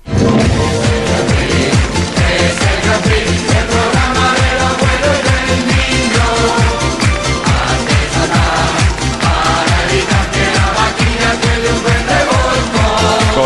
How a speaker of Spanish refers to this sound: El Grand Prix todos lo conocemos con una sintonía que es la mítica, que suena así.